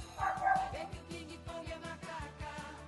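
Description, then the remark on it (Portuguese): A dog barks repeatedly in quick, uneven bursts, fairly faint, with a brief whiny yelp near the start and no one speaking; the dogs have been let loose. “É, os, os, os macacos, os, os cachorros já estão soltos aqui.”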